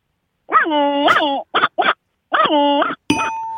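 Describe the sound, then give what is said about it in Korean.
A person on the phone imitates a dog in an animal-sound imitation game, with a drawn-out whining bark, two quick yips, then another long bark, before a short electronic buzzer tone cuts in at the end, marking the imitation as failed. “자, 강아지요?”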